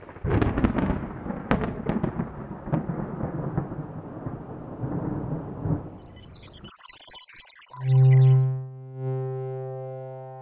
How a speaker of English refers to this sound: It was a dark and stormy night. Pause for dramatic sound effects.